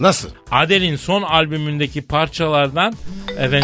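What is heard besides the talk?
mobile phone ringtone ringing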